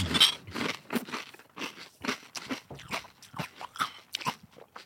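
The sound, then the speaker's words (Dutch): Crunching and chewing of cornflakes soaked in gin, a steady run of crisp, irregular bites and munches lasting several seconds, loud with no talking over it. “Alsof je alleen cornflakes zit te vreten met een beetje een soort chemisch nasmaakje.”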